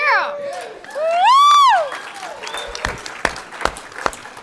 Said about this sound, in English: Hey, everybody scream for a second. Hands up. Yeah. We feed on your applause. Nom, nom, nom.